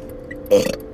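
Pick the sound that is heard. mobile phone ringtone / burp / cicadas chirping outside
burp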